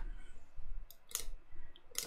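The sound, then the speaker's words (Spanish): A few crisp computer mouse clicks, fairly quiet, arriving irregularly with one soft tick among them over a low, steady background hum, as someone clicks Live to activate customer email flows in an online store. No one speaks. “Vas a dar clic en Live, Live,”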